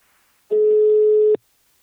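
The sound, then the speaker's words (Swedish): A single steady electronic ringback tone of an outgoing call to the company Invacare sounds for just under a second, clear, then cuts off abruptly into near silence. “Nu tar vi en kort paus och ringer upp min samarbetspartner Invacare”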